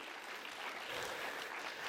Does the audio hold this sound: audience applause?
yes